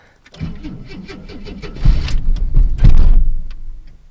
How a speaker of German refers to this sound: Ja, und zwar, wir wollen den Motor starten und äh, der Motor kackt wieder ab.